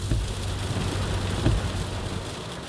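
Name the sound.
heavy rain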